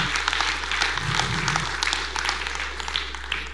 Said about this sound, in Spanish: Porque el Señor, Dios le bendiga, para darle un aplauso a Él.